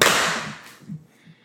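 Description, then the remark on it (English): A single sharp hand clap to sync a recording, loud and crisp, its bright ring fading over about half a second, followed by faint low rumbles. “do we need to clap again”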